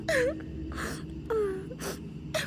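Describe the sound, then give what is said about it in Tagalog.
A person cries and whimpers in wavering, high-pitched moans, broken by shaky breathy gasps between each sob, repeating unevenly over a low steady background hum; someone crying in the neighbouring room at night, around midnight, heard through the wall. “May umiiyak sa kabila.”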